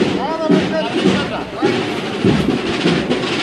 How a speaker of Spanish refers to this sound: El capataz al tiempo que está bajando el paso.